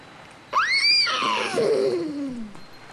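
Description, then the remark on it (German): A single horse whinny, loud, rising sharply into a high, shrill cry and then trailing down in a long, quavering descent before fading out. No one speaks. “Auch auf Mondscheins Gesicht breitete sich jetzt ein Lächeln aus. Er wieherte.”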